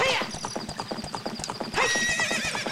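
Steady, rhythmic clip-clop of the horse Epona's hooves runs throughout, and partway through a loud, wavering horse neigh breaks out over the hoofbeats.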